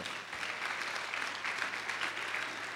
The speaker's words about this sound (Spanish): Eso, dale un aplauso al Señor.